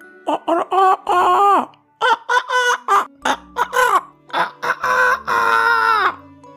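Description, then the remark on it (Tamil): A voice imitates a rooster crowing cock-a-doodle-doo, loudly: a run of short, choppy calls building up and ending in one long, drawn-out crow. “அப்படின்னு கத்திக்கிட்டே இருந்துச்சு ரொம்ப நேரமா இது கத்துன சத்தம் பக்கத்துல ஒரு மரத்து மேல இருந்த பருந்து ஒண்ணுக்கு கேட்டுருச்சு”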